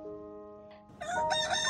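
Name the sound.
rooster crowing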